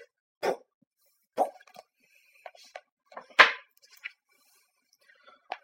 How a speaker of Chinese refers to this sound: 如果这些空气从嘴里出来，就是打嗝；如果从肛门里出来，就是放屁。